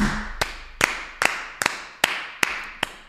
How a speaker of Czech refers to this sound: Tleskám.